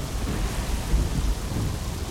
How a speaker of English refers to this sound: torrential rains, howling winds, widespread flooding.